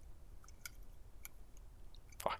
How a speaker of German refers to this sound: Ich habe immer Probleme, bei diesen kleinen Slim-Dosen den Deckel oben anzuheben. Also diesen Lift-Tab. Okay, aber dafür zischt es zischt.